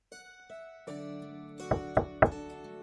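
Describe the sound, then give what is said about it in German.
Three firm, evenly spaced knocks on a door, following a few soft ringing tones that linger underneath. No one speaks. “Mal sehen, wer jetzt vor der Tür steht.”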